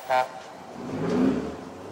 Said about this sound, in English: The chair started shaking. Oh, it was just a big truck going by.